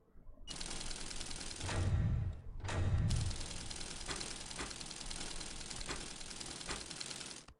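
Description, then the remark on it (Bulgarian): Rapid, continuous machine-gun clatter from a video game, with a dry, typewriter-like ticking, loud, broken by two heavier low thumps early on before the rattling carries on steadily to the end. “Шум картешница като пишеща машина.”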